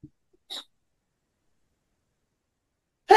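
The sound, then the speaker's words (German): A brief, hissy intake-like burst, then near-silence, and finally a loud sneeze erupting at the very end. No one speaks. “Ja. Gesundheit bin wieder da.”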